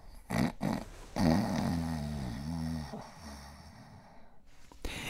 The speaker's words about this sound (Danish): Ja, så deler du jo også seng med en af de andre kale eller piger på gården, der både prutter og snorker.